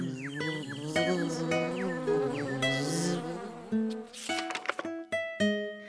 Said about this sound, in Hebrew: השרקרק ניסה לתפוס את הדבורים שזמזמו לידו.